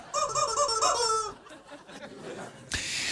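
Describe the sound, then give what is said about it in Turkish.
A squeaky rubber-duck toy honks in a quick series of shrill, wavering squeaks, loud, followed by a short quieter stretch and a sudden burst of hissy noise at the end. “Ördek bile var.”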